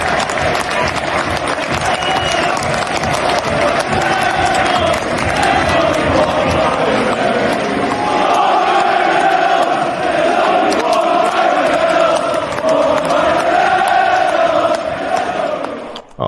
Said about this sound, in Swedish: De är, eh, Ryan Reynolds i alla fall har ju fått eh, fina ramsor från Rexham-fansen. Vi kan ju lyssna.